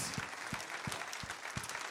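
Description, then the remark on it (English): A crowd claps in a dense, continuous wash of applause, with a few louder, evenly spaced claps standing out in a steady rhythm about every third of a second. “Let's clap our hands real quick.”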